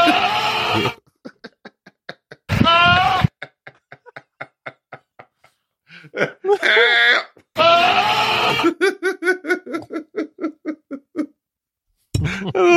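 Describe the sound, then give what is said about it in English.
A goat screams loudly, heard from a long distance and sounding like a person yelling for help, with several harsh, human-like yells separated by pauses and rapid stuttering bursts of sound filling the gaps between the screams. “Yeah, this poor guy's running towards this thing and somebody's screaming for help as a it's, fucking goat.”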